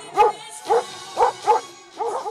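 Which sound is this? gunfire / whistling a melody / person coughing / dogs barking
dogs barking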